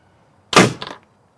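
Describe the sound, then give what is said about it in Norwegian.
An automatic Wise Trap rat trap, which has sensors underneath that measure movement and heat, fires its spikes out at 120 km/h with a sudden, sharp mechanical snap, followed by a brief rattling clatter that dies away in under half a second. No one speaks. “Her er sprettene. De kommer ut herfra med 120 km i timen.”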